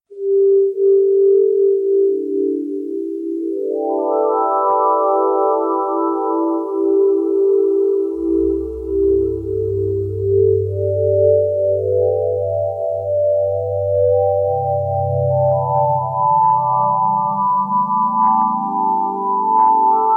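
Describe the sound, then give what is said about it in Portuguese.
A sonification of Supernova 1987A, its collected data turned into audio like a crystal bowl: layered synthetic tones that hold steady, then glide upward, with a deep low drone entering midway and slowly climbing. Loud and continuous, with no talking. “Então a gente vai ouvir agora a Supernova 1987A.”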